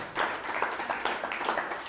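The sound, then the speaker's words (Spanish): Steady applause from an audience, a dense wash of many overlapping claps holding a fairly even level for the whole stretch, with no voices standing out above it. “Ya, dale un fuerte aplauso, ya.”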